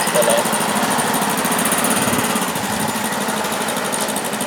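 Mopeds buzz and rev, a loud, steady, high-pitched engine drone that holds for several seconds with slight rises and falls in pitch.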